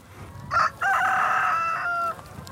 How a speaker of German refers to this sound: Vielleicht antworten sogar auch mal die Hühner.